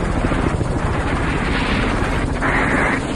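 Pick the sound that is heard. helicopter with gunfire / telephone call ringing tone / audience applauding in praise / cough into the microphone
helicopter with gunfire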